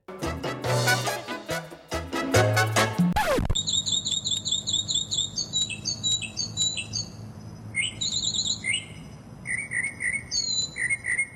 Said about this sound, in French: Alors, que euh, le chant de l'oiseau, c'est réellement un mockingbird. J'ai cherché un mockingbird et c'est réellement un mockingbird.